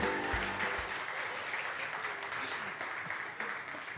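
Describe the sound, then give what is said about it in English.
A crowd applauds steadily during a church message, a dense wash of many hands clapping at an even loudness for several seconds, with a few brief low sounds at the start. “Get excited and clap there, but that's okay.”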